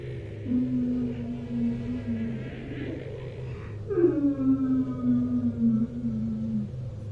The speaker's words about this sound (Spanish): Cuando mi papá escuchó algo, un llanto, no era la primera vez que lo escuchaba. Al haber vivido ahí por tanto tiempo y haber transitado de noche cerca del río en muchas ocasiones, era inevitable que se hubiera topado con aquella leyenda ya.